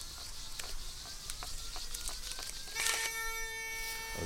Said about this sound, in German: das Piepsgeräusch sagt, dass wir im Wasser sind mit der Sonde. Ich messe jetzt erstmal das Wasser. Also in welcher Tiefe das Grundwasser liegt. Nur bei 16,10 Meter. Und jetzt piept es natürlich dauerhaft, weil ich mit der Sonde im Wasser bin.